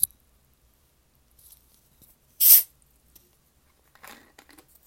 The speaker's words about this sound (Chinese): 再喝个厉害的气泡水，让你们听一下声音。